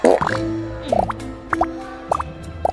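Soap bubbles pop one after another, about five soft, wet plops spaced roughly evenly apart, moderately loud over a steady low background hum, with no one speaking.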